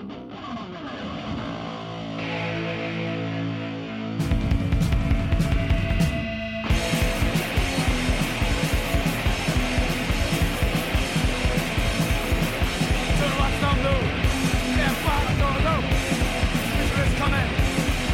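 A punk rock song played from an album opens with a few seconds of ringing, sustained guitar, then drums and the full band crash in, loud and dense, pounding along at a fast, steady pace.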